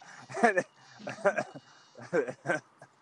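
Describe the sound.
A person imitates a goat, letting out several quavering, nasal bleats in a row, each a short wobbling burst with brief pauses between, moderately loud.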